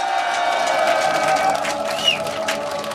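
A crowd of about 250,000 people at the Gwanghwamun candlelight rally in front of the TBS broadcasting station cheers and roars steadily for about three seconds, a dense wash of many voices with a few shrill whistles or shouts rising above the din.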